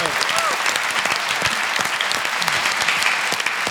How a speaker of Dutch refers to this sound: Applaus voor jezelf.